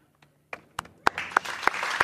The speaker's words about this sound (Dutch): Ik ga snel naar mijn samples, want dan kan ik jou applaus geven.